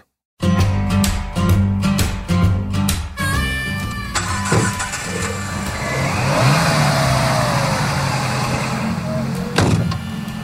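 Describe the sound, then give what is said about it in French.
An open-top Jeep, its soft top taken off for a family ride, engine rumbles low and steady, revving with gear changes early on, then settling into a continuous driving drone with wind noise and occasional knocks over the road. “mes deux plus jeunes faire un tour de Jeep”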